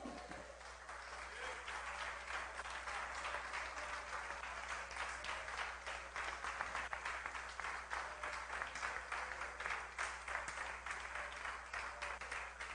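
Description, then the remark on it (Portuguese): An audience applauds the Lord in the morning, steadily for several seconds, a dense, continuous wash of clapping hands with no voices standing out above it. “Se você é filho do Senhor e está debaixo das suas mãos, dê um glória e aplauda o Senhor nessa manhã.”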